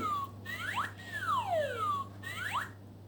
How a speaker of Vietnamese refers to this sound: đang huýt sáo và lượn lờ quanh quả bóng.